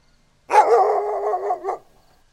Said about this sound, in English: The dogs kept barking, but the man silenced them with a big shh it's just the wind, you bastards.